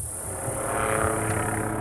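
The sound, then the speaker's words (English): A small helicopter drones steadily overhead, its engine and rotor forming a constant low hum with a faint rhythmic throb, fairly loud and unbroken throughout. “So, the Federal Bureau of Land Management regularly rounds up wild horses mainly by using small helicopters to locate, capture, and truck them off to corrals or enclosed pastures like this one.”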